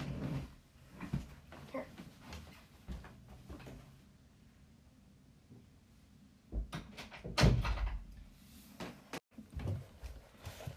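A chair is shifted and dragged out of the room, with scattered scrapes and soft knocks building to a cluster of louder bumps and clunks near the end.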